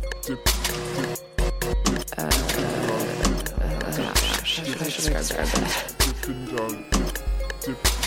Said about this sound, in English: The arms actually swing out from the inner cylinder. There's this metallic sound as the arms bob in the tanks.